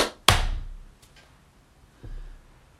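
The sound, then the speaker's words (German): A single loud, sharp hand clap, made after a countdown to mark a spike in the audio recording, rings out once and decays quickly into near silence, followed later by a faint, dull knock. “Und dann lass uns nochmal klatschen, damit es nochmal so einen Spike gibt, okay?”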